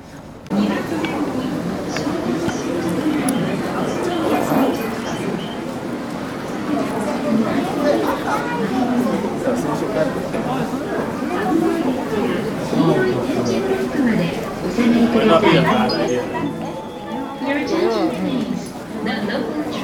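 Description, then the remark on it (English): Busy train platform ambience on the way to a match: a continuous wash of overlapping crowd chatter and footsteps, steady and moderately loud for the whole stretch, with no single voice standing out. “the next time you'll hear from me after probably some soundscapey stuff on the train platform.”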